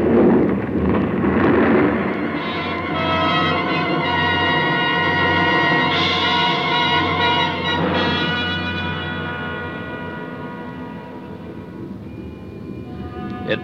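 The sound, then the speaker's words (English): A massive avalanche of snow and ice, loosened from a ridge by gunshots, rumbles with a deep, continuous roar, loud and dense at first, then slowly fading as it sweeps down toward the valley into the distance. No voices are heard. “past me and swept on down toward the valley, the thunder of it dying in the distance.”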